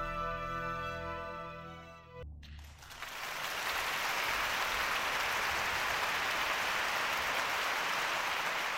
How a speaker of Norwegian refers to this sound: Og så eh, veldig mye applaus. Ja, og så litt applaus, for dette var jo et liveopptak. konsertopptak.